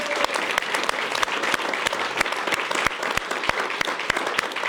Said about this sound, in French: Je crois qu'on peut aussi applaudir le public qui est avec nous.